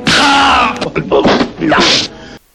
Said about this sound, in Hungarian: Na, akkor dur még két pofon, megint elhajlottam.